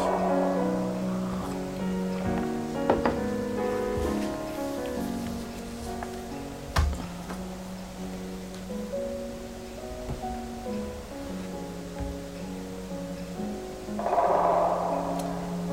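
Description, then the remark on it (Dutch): Steady rain hiss runs under an outdoor recording the whole way through, with sustained tonal sounds layered on top and a few brief sharp knocks. “Die uh, ruis is, is omdat hij in de regen is opgenomen?”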